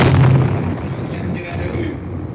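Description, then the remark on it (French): Machine-gun fire from a tank, bullets cracking against a wall in a dense, noisy barrage, loudest at the start and then settling into a steady, harsh rattle of overlapping impacts. “Il tire à la mitraille, vous entendez les balles qui claquent contre le mur.”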